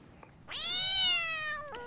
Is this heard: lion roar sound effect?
no